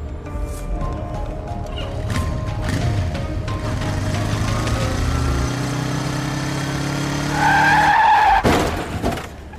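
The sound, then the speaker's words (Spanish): A motorcycle engine revs and climbs in pitch, then tires let out a sharp, loud squeal, followed by a burst of heavy crashing impacts as the motorcycle skids and crashes; the rider wore no helmet. No voices are heard. “Uy, qué palo, y encima sin casco.”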